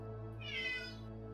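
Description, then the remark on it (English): A single drawn-out cat meow rises and falls over about a second, clear against a steady low background hum, with no one talking. “But oh, and the cat, of course.”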